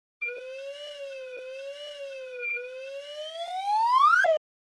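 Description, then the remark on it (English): A slide whistle, standing in for a graph of changes in the inflation rate over the past two years, plays a single continuous tone that wavers gently up and down, dips slightly, then climbs steadily to a high peak before cutting off abruptly. No voices. “I'd like to show you a graph of the changes in the inflation rate over the past two years, but because graphs don't translate well to podcasting, instead, this slide whistle will give you an idea of what the graph would look like.”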